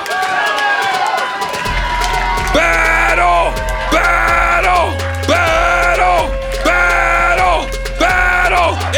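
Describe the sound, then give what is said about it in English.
A loud crowd at a roast battle night in the Belly Room cheers and then chants "Battle" in unison, over and over in a steady rhythm, roughly once a second, above a low droning hum. “Why we stop chanting?”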